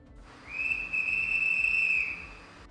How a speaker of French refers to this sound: Un autre coup de sifflet retentit.